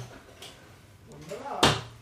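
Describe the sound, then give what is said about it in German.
The second drawer from the top is opened to get a power strip and then shut, with a short, sharp wooden knock near the end, while muffled voices murmur in the background. “Ja, äh, zweite Schublade von oben”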